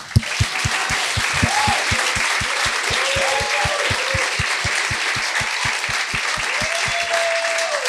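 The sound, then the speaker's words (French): An audience applauds loudly and steadily for several seconds to welcome two guests onto a show, the clapping falling into a quick, even rhythmic beat, with a few whoops and shouts rising over it before it cuts off. “J'aimerais ça qu'on leur donne une bonne main d'applaudissements”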